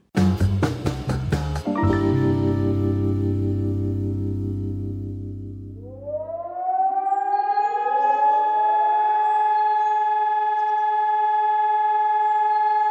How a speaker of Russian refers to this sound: Сирена воет. Вы слышите его еще во сне. Далекий, упорный, требовательный – все громче и громче. Воет злобно, заливисто, как испуганный и взбешенный зверь. Одновременно и жалобно, и угрожающе.